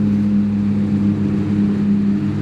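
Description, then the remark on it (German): A jet ski engine drones steadily and loudly, a constant low rumbling hum with no voices, holding the same level throughout rather than swelling or fading. “Und euch, ihr elenden Versager, ihr Krüppel, ihr niederen Subjekte auf euren Jetskis, möge euch der Blitz, ihr wisst schon, wo treffen.”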